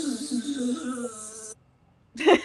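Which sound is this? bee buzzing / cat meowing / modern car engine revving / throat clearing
bee buzzing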